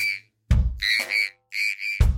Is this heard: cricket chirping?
yes